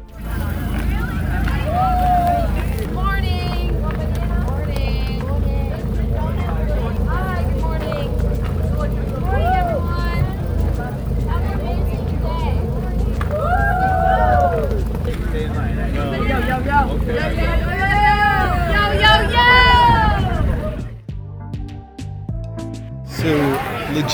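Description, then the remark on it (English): A coffee truck's engine or generator drones loudly and steadily beside a campsite at 4:30 in the morning in Atlantic, Iowa, with indistinct voices chattering over the rumble; near the end the hum shifts to a rougher, choppier mechanical sound. “Here's what 4:30 in the morning sounds like if you make the mistake of camping next to the coffee truck.”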